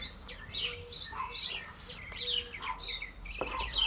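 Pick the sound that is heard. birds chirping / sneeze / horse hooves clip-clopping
birds chirping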